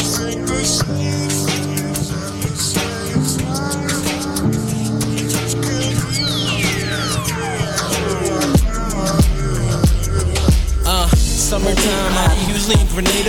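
A hip-hop beat intro plays loud and steady with sustained tones and punchy percussion; midway, a long falling sweep effect dives into booming bass hits. No voices are heard.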